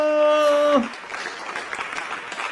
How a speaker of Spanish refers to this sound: Ah, entonces, por favor, el día de hoy, no se los olvide hacer el preparativo para el domingo el Día del Padre y con ellos un fuerte aplauso.